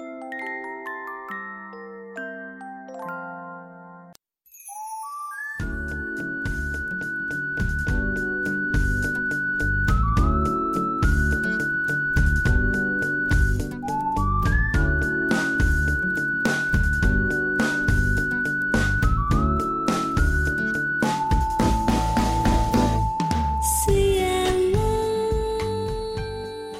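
A gentle pop song sung by a teenage boy, opening with a few seconds of tinkling, music-box-like notes before a steady full backing of rhythmic accompaniment joins the bright melody.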